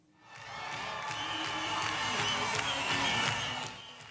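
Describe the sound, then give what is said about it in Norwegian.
A stadium crowd of many thousands of Malians on the outskirts of Bamako, Mali, cheers as presidential candidate Sumaila Sise arrives, a steady, dense roar with sharp bursts of whistles and clapping cutting through. It swells in quickly and holds loud for several seconds before easing slightly. “De mange tusen malierne jubler medan presidentkandidat Sumaila Sise kommer inn på en stadion i utkanten av hovedstaden Bamako.”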